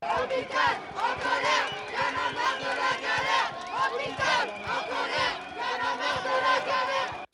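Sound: protesters chanting a slogan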